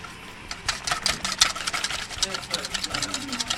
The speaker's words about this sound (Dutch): Jij bent zo iemand die een mixer gebruikt voor zo'n klein beetje, of niet?